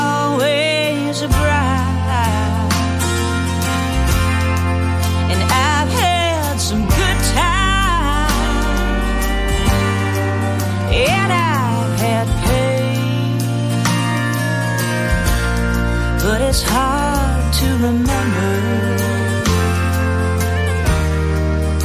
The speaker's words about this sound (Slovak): Takže dáme, ak sa to mi to podarí, dúfam, že áno, dáme ešte jednu pesničku a budeme sa počuť po nej znovu.